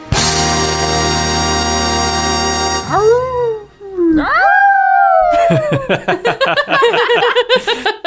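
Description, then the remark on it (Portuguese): After a steady droning tone, human voices imitate wolf howls with long rising, wavering cries, followed by a loud burst of choppy, yipping howls and laughter-like yelps from several people. “Você não tá pronto para fazer parte da matilha ainda, que aqui quando um uiva todo mundo”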